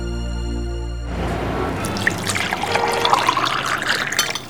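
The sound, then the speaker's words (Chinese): Taiwanese Lishan Fushoushan tea is poured steadily into a cup in Tainan after a short sustained tone ends, a continuous splashy trickle whose pitch creeps upward as the cup fills. “泡一杯茶，在台南古都闹中取静。”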